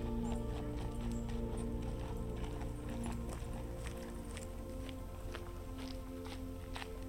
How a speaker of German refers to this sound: Du bemerkst, wie sich der Klang deiner Schritte nach und nach verändert, wenn du vom erdigen Pfad im Lighthouse Park zu den Steinen des White Lake Trails gelangst,